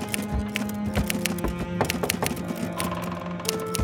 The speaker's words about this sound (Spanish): Stephen teclea pensando en los extraños acontecimientos del día anterior.